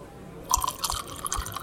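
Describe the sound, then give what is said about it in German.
A double drink is poured into a glass, with gurgling, splashy liquid sounds and a few soft knocks lasting about a second after a short quiet start. “Das gleiche wie immer, oder was? Klar, Börder. Mach mir mal gleich einen Doppelten.”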